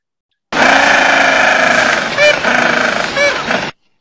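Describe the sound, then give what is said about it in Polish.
A gentoo penguin living near a station brays loudly for about three seconds, a harsh, buzzing, donkey-like call that pulses rapidly, with a couple of brief higher squeals near the end. “E, kolejny pingwin, który też mieszka w pobliżu naszej stacji, to jest pingwin białobrewy.”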